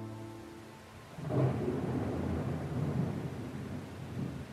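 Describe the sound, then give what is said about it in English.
A low rumble of thunder rolls in and swells, sustained and broad, over a steady wash of rain; no voices, just the storm on a rainy night at an island on the Rhine River between Germany and France. “It's a rainy night.”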